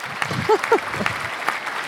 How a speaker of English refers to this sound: Hooray! Hooray! We'll even give ourselves an applause.